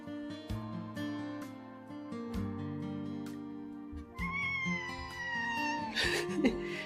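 A cat meows repeatedly in long, drawn-out, clear cries with wavering pitch and a more strained, rising yowl near the end; no one speaks.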